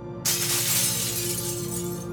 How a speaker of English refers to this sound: Without thinking, Jean hurled a glass into the vanity mirror.